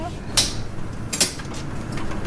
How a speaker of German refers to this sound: Die Tür zum Inkubator geht auf. Plastikplatten mit Vertiefung in der Größe von 2-Euro-Münzen werden bei Körpertemperatur ständig sanft gerüttelt optimale Bedingungen für die Organoide.